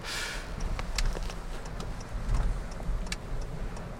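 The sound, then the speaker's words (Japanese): Steady low rumble of a car cabin on the road during a weekday midday drive, with a series of sharp, evenly spaced clicks like a turn signal ticking over the engine drone as the driver turns left, driving past a park with a large hill. No one speaks. “こんな時間に移動すること珍しいからね平日のお昼じゃん今こんな時間に車で走ること珍しいのでこのぐらいの時間帯のその道路状況とかよく分かんないんですよね”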